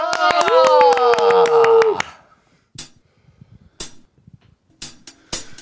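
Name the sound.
audience clapping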